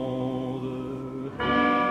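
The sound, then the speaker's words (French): The church bells of Notre-Dame in Paris ring out with long, resonant tones that hum and sustain, then a fresh, brighter strike lands partway through and keeps ringing. No voices are heard. “cloches de Notre-Dame à Paris.”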